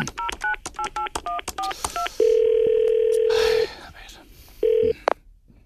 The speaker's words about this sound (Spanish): Así que vamos a llamarle al teléfono.